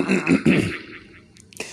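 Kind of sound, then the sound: human body sound, throat clearing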